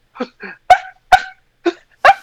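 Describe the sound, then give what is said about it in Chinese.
A pediatrician imitates a child's barking croup cough from an inflamed, swollen larynx: six short, harsh bursts in a rough, irregular rhythm, several loud and sharp like a small dog's bark, with no other talking. “然后呢，咳嗽的时候声音很奇特，我们小儿科医师特别形容像小狗在叫”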